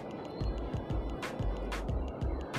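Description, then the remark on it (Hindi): A small stream burbles steadily at night while faint, continuous chirping of night insects hums high above it, with a couple of brief splashy surges and low thumps, no voices. “ये एक नदी से छोटी जो होती है ना खट खट बोलते हैं हमारे लैंग्वेज में उसकी आवाज़ है और रात को जो इंसेक्ट होते हैं उनकी आवाज़ है चिर पिर और काफ़ी ब्यूटीफुल रात है”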